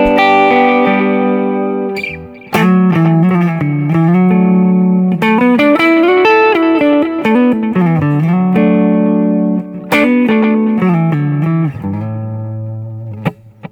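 A sustained, effects-laden instrument plays a slow melodic line through a "B" delay setting. Its notes ring out and repeat in delayed echoes that blend together. The sound is loud and steady, with no talking.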